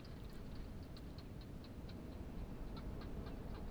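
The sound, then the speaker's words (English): A barking gecko calls in a steady series of quick, faint clicking chirps, repeating every fraction of a second over a low rush of wind blowing through a few plants in a dry, quiet desert at dusk, as the day's heat turns to the night's cold. “You can hear the winds blowing and the quiet call of the barking gecko.”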